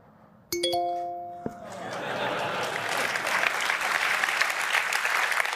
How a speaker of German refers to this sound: Und die Leute sind komplett ausgerastet. Ne? Dann gleich Applaus und so.